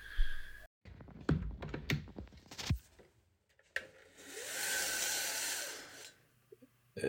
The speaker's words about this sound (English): So is that, is that that sound is is the sound of the window? Opening. It's a window closing. Uh, window closing. Because I thought that was the sound of you taking a breath.